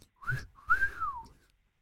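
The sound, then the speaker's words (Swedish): A person whistles two short tonal phrases, the second longer with a rising then falling pitch glide, clear with no talking. “Och sen då kopplar någon upp sig och så börjar vissla.”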